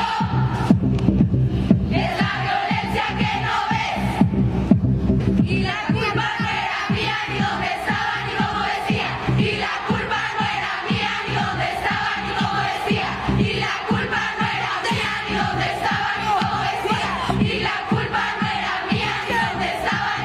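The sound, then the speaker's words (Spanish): A large crowd of women at a protest shouts in unison a chant created by women's social groups as an anthem and battle cry, loud and rhythmic, with voices rising and falling in repeated phrases over a steady roar for about twenty seconds. “estos grupos sociales crearon casi un himno, un grito de guerra para las mujeres en plena protesta.”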